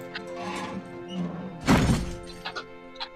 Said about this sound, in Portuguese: E você fecha a janela. Quando você fecha a janela,